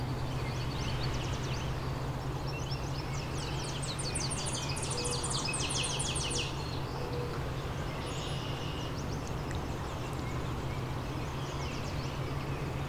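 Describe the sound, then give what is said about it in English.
A Tennessee warbler sings a high, rapid series of dry chipping notes in a short burst that shifts pace, with fainter snatches later over a steady low hum and no talking. “Tennessee warbler kind of has three different paces to its warbles.”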